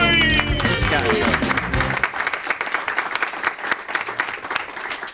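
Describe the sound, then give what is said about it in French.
A studio audience bursts into loud, sustained applause welcoming a guest, dense clapping filling the room, with a brief musical flourish at the start fading as the clapping continues. “On l'accueille en bonne et due forme, mesdames, messieurs.”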